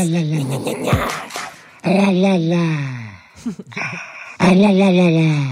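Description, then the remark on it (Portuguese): An angry dog growls and yowls in long, wavering, muffled moans, three drawn-out cries separated by short gaps and snuffling, fairly loud, while its owner holds a hand around its muzzle and lets it growl only now and then. “É um cão que está muito zangado, está a rosnar, a protestar, e o dono está com a mão à volta do focinho dele a deixá-lo só rosnar de vez em quando.”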